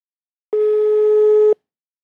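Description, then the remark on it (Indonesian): A single steady electronic telephone ringing tone as a call is placed to a friend, a loud, even beep held for about one second, then silence; no voices. “Nih guys, langsung aja aku telepon ya.”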